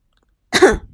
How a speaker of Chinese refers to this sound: …咳嗽一声，对着麦克风说道。